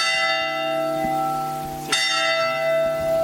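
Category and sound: signal or alarm, church bells ringing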